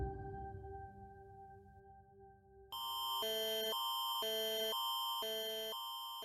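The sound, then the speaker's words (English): After a few seconds of low, quiet droning, a loud Alert Ready emergency broadcast phone alert tone blares in, a harsh electronic signal that alternates between two pitches in rapid, steady steps. “That's the sound of Alert Ready, an emergency broadcast system capable of reaching every phone on an LTE network.”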